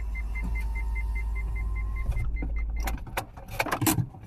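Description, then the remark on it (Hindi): Two car power windows whir shut over a steady low engine rumble, a strained motor hum lasting about two seconds, followed by a few soft clicks and thumps as the glass seals. “शीशे सारे बंद करो कर दी दोनों”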